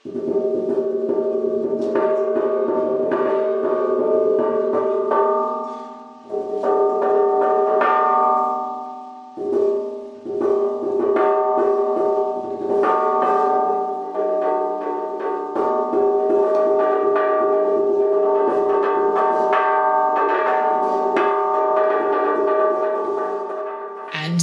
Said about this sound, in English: So what we did was because there are no records mm-hmm. of how this instrument is played, there's one image that we had of this huge drum being played by metal rods.